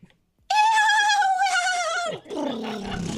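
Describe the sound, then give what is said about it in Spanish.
A hungry mare whinnies loudly, a long quavering cry that holds steady, then drops and breaks into a lower, rougher nickering tail, with no voices around it. “Eso es una yegua con hambre.”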